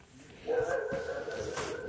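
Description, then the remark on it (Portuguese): A dog barks outdoors in Itororó, its drawn-out, whining calls running together almost continuously from about half a second in until the end, with no one talking. “Como então, vocês estão ouvindo aqui, tem cachorro.”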